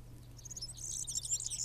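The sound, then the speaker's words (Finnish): A European serin sings a fast, jingling, high-pitched stream of buzzy chirps and twitters, growing busier toward the end over a low steady hum. “Viikon luontoääni: Keltahemppo”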